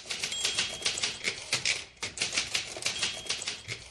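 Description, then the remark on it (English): A woman types at great speed on a Smith Corona typewriter: keystrokes clatter in a dense, nearly continuous burst of sharp clicks, fairly loud, with no voices. “We would wake up to the sound of it, uh, her typing at an astonishing speed on her Smith Corona typewriter.”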